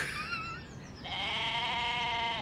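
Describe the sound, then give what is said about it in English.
A goat bleats loudly: a short, higher cry, then a long, wavering bleat with a shaky, trembling tone, while high up in the sky with its tongue stuck to a firework. No one speaks. “I mean, I don't know exactly how this happened, but it looks like it's a goat.”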